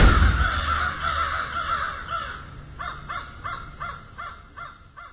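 Crows caw over a noisy, murky background, a jumble of calls at first, then a steady rhythmic run of about seven harsh caws, each at moderate volume.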